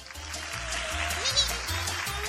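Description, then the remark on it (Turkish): An applause sound effect on a children's quiz programme: a short burst of steady, dense clapping, like a crowd applauding, with a low rhythmic hum pulsing underneath for about two seconds. “evet aslında alkış hak etmedin çünkü zor bildin Bıcır.”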